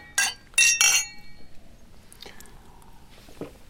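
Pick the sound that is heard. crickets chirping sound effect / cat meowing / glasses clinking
glasses clinking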